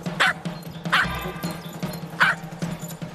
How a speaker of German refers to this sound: Und wenn sie raus will, dann bellt sie kurz.